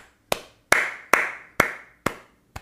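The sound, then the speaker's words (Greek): Six slow, sharp hand claps from a single person, evenly spaced about half a second apart, each with a brief ringing decay, imitating a lone concertgoer who keeps clapping after the rest of the crowd has stopped. “Είναι αυτό που γίνεται το χειροκρότημα και στο τέλο μένει ένα και κάνει.”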